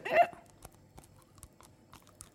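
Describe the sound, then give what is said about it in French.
Teeth grinding by a person demonstrating bruxism: a brief louder rasp, then a handful of faint, dry scraping clicks spaced irregularly about half a second apart, with no talking. “Là, j'ai fait de l'ASMR, j'ai, j'ai grincé un peu des dents.”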